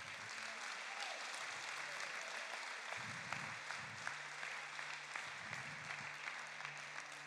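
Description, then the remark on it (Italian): A crowd applauds the Father steadily throughout, a dense, continuous wash of many hands clapping at an even level, with a low hum and faint voices mixed underneath. “Un altro applauso meraviglioso al Padre.”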